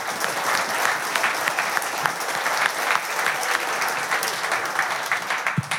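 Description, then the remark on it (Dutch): Steady, sustained applause from an audience welcoming three male singers about to perform a new song, a dense wash of many hands clapping at an even loudness throughout with no talking over it. “Nogmaals een hartelijk applaus.”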